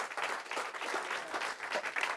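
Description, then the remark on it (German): A crowd applauds the team steadily, many hands clapping together in a dense, even patter that holds at a moderate level throughout, with no voices standing out. “Geben wir dem Team einen Applaus.”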